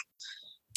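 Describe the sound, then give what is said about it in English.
A Facebook message notification sound as pictures are sent over Facebook: one short, bright electronic pop-chime lasting under half a second, fairly quiet, with a faint click just after and no talking. “Um, also I found the pictures and I sent them to you on Facebook.”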